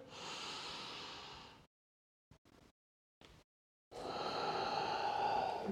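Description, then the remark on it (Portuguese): Long, deep breaths during a breathing exercise with back arching and rounding movements: a loud, airy breath lasting over a second, a pause with a few brief soft sniffs, then another long, full breath. “Respirações longas e profundas ir até ao fim das, das expirações, está bem?”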